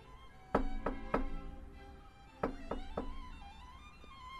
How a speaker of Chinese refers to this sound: 洞穴大门上。有一个巨型扣环，他握住扣环，重重的敲门。